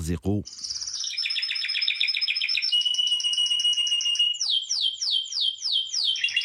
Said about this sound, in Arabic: هذا الفيديو هذا اللي كنسمعكم دابا ديال العصافير عندها سبع سنين 6.5 مليون واو ديال المشاهدات ديال الاستماع